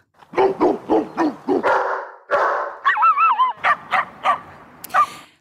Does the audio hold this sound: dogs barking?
yes